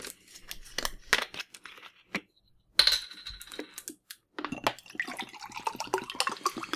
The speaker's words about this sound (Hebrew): אתה מוזג מים לתוך המיקרופון? ככה לא, זה נשמע. המיקרופון, המיק, המיקרופון, כן, אני מוזג מים לתוך המיקרופון. ככה זה נשמע.